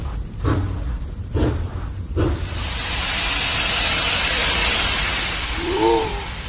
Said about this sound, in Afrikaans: Dis 'n trein. Met 'n gesig. Wat 'n soort trein is dit?